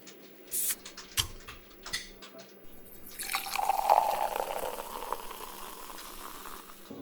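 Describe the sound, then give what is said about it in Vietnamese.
Red Bull energy drink is poured into three cups in an office, a rising fizzy gurgle that builds after a few clicks and taps, then fades into a soft hiss of bubbles. Fairly quiet, with no talking. “Mình sẽ rót ra ba cốc và đánh dấu 1, 2, 3 để không ai biết được đâu là loại nào này.”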